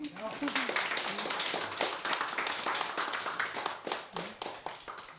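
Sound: clapping applause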